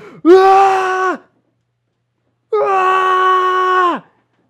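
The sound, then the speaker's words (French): A voice imitates two long, sustained screams or howls heard through a corridor, each held for about a second or more with a brief silence between them, loud and strained. “je pense que vous entendez juste, genre, les, cris à travers le couloir, genre, puis vous voyez tous les cafards rentrer dans le tunnel, genre, puis vous entendez juste des hurlements de”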